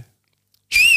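A single bright whistled note from a person's mouth, loud, bending slightly up then sliding down over about a third of a second after near silence.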